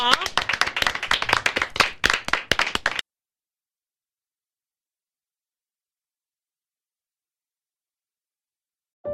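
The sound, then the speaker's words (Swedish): A small group of studio hosts claps in a quick, dense burst of applause lasting about three seconds, then it stops abruptly and silence follows. “Tack för den här morgonen, du får en applåd av oss.”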